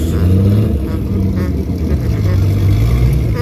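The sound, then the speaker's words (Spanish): A loud, steady engine roar dominates, with harmonic tones sliding up and down as the motor revs, like a race car running at a track, with faint talk mixed underneath. “¿Cómo va el Melín? ¿Quién es el Melín? Dime qué carro es.”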